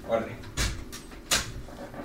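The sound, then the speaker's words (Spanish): A studio door closes as someone leaves, heard as two sharp knocks or clunks a little under a second apart, the second one louder, with faint murmuring voices in the background. “Ahí escucharon a Martín salir ya del estudio”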